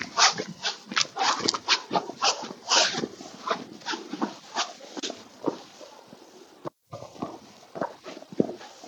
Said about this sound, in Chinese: 这条路都是雪，所以刚才就是我踩在雪、踩在雪上的声音。